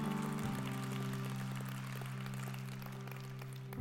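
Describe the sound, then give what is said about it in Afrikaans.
An audience applauds to thank the church's dream team, in a dense, steady wash of clapping lasting a few seconds, with a sustained low keyboard chord holding underneath throughout. “Kom ons honor hulle net met 'n lekker klap offer en ons sê vir ons dream team dankie.”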